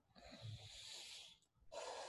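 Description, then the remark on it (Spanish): A prey animal breathing deeply as it comes out of a frozen state after a predator has left, with two long, heavy, snorting breaths separated by a brief pause. Fairly loud, with no talking. “Empieza a respirar, regresa a la vida, regresa a la vida, Vean cómo, la respiración es más profunda.”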